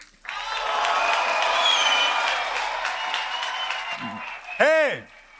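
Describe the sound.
A crowd applauds and cheers steadily for about four seconds, a dense wash of clapping with shouts mixed in, then it fades and a single voice calls out with a rising-falling tone.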